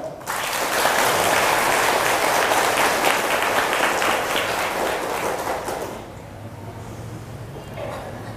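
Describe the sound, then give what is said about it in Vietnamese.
An audience of Buddhist followers at a Buddhist talk bursts into loud, sustained applause at the speaker's request, a dense wash of clapping that holds steady for about six seconds before thinning out and fading, with a low hum lingering underneath. “nếu các quý phật tử thấy rằng là chẳng những tôi phải làm như thế và khích lệ mọi người cũng phải làm như thế là việc nên làm và mỗi khi làm là phải thành công thì hãy cho một tràng vỗ tay thật lớn”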